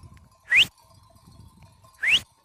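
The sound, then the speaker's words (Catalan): A flock of sheep with bells, milling around one another: two loud, rising bleat-like cries about a second and a half apart over a steady faint ringing of their bells and low shuffling. No one speaks. “S'arremolinen unes al voltant de les altres, oh. creant un nigul de llana i caps i picarols que sonen.”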